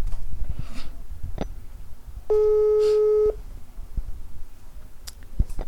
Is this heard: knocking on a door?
no